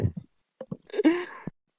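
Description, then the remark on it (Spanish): A single sharp sneeze bursts out, a quick voiced intake followed by a loud, breathy explosive release, preceded by a few soft vocal noises. “¡Salud!”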